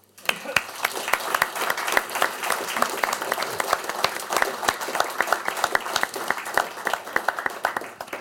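An audience applauds steadily, many hands clapping in a dense, continuous wash with a few sharper claps standing out, sustained for several seconds in an indoor hall.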